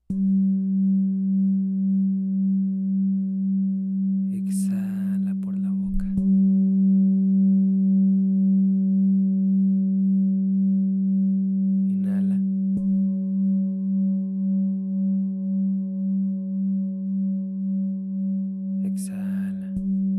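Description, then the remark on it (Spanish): A singing bowl, played to guide a breathing exercise, hums with a steady, low ringing tone and faint higher overtones, wavering in a slow pulse for the whole stretch, broken only by three brief, soft breathy bursts. “Te apoyaré con un cuenco. Sigue el sonido.”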